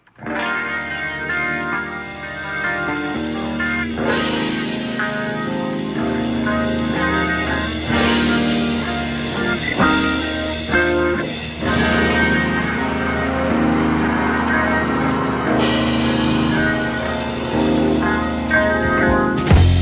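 Acoustic guitar music plays steadily throughout, with full sustained chords and a warm, slightly effected tone at a constant moderate loudness; no talking.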